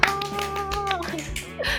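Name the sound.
hand clapping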